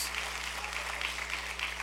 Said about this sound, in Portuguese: Pode aplaudir o Senhor. Você está aplaudindo esse Deus.